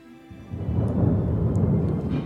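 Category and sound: nature, thunder clap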